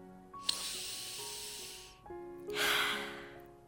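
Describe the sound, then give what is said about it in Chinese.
A bear sniffs a sweet, tasty smell: two long, breathy sniffs drawn in through the nose, each a loud rushing hiss, separated by a short pause, over a soft sustained musical tone. “一阵香甜味道扑面而来，贝尔熊用鼻子吸了又吸。”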